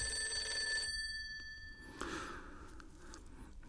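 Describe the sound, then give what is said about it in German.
An old-style telephone bell rings at night in one bright, metallic burst lasting just under a second, then falls silent, leaving soft breathy rustling and low background hiss. “Der Anruf kam nachts.”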